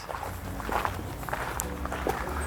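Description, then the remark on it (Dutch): Footsteps of people walking around in small circles at a steady, unhurried pace, soft repeated treads over a low background hum, with no talking. “We lopen gewoon een beetje rondjes en misschien, eh, misschien voelt er straks iets goed.”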